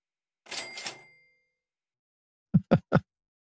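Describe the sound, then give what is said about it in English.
A cash register rings out with a bright bell and a rattling clatter that fades, then after a short pause three quick, solid clunks follow in a row. No one speaks. “Well, I'll ring it up for its Golden Lion, which is the first I've ever heard of that, but it sounds rad.”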